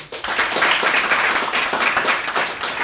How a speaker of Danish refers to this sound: Prøv at klappe, hvis I har hørt podcasten før.